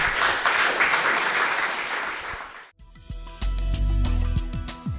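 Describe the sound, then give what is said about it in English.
An audience applauds a discussion panel warmly for nearly three seconds, a dense, steady wash of clapping that cuts off abruptly as an upbeat music track begins. “Could you please thank this panel?”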